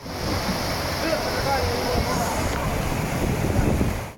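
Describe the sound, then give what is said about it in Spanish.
A steady, loud roar of rushing brown, muddy floodwater fills the scene, dense and continuous like a torrent surging over the roads of the northeastern city of Niswa, with wind buffeting the microphone and a faint murmur of voices underneath. “causaron que en cuestión de minutos se hiciera una inundación marrón y fangosa, la cual se apoderó rápidamente de las carreteras en la ciudad noreste de Niswa, donde los residentes veían cómo la fuerza del agua se llevaba todo a su paso.”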